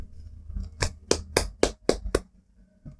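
A brief round of applause from a single pair of hands for someone who has learned to remove the camera: about six sharp, evenly spaced claps in quick rhythm, then quiet. No one speaks.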